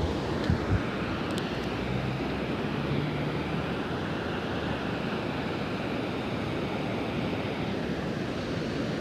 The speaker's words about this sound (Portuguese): Para finalizar, cheguei na praia. O barulho do mar. O mar.